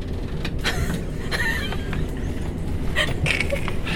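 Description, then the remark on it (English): A steady, loud low rumble fills the interior of a moving 12-coach passenger train to London Charing Cross, with intermittent rattles, clanks and a couple of brief metallic squeals riding over the constant drone. “This train is now formed of 12 coaches all the way up to London.”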